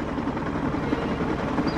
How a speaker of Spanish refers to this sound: ¿Qué es ese ruido, Domingo? Pues me suena como un helicóptero.